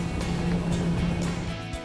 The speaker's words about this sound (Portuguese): Nós vamos nessa lancha voadeira aqui